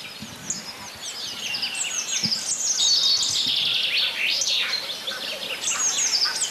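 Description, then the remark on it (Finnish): Black grouse bubbling, a low murmuring coo heard through the night, sits faintly in the background beneath a dense, bright chorus of songbirds chirping and trilling. “Ja teeri pulisee siellä taustalla.”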